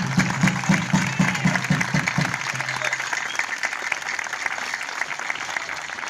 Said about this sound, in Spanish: Quiero un gran aplauso para ustedes primeramente y para Guillermo. Un aplauso compañero, vamos.